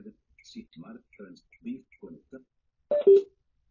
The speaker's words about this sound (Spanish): Bueno, ahí ya está, nos hizo un sonido como de titud, así significa que se finalizó la conexión. Es bastante bueno esto porque así sabemos cuando está en modo Bluetooth, cuando se conecta y cuando se desconecta, ¿no?